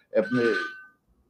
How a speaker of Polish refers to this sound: Ktoś dzwoni, ty, ktoś dzwoni do mnie tutaj